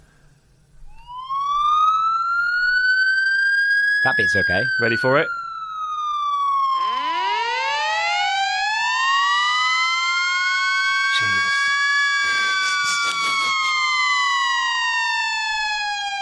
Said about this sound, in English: Number two is the noise that fire engines make. Right. This is absolutely ungodly. I do not understand why anybody, anybody would want to come up with this noise and then go, yeah, let's put this on our giant fire trucks. Listen to this.